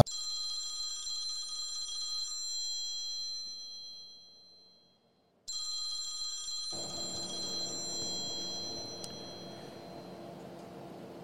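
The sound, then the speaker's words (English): A telephone rings with a bright, metallic trill, pauses in a brief silence, then rings again before a fuller, noisier background swells in beneath the ringing. “So uh, I think we're going to be getting a call here”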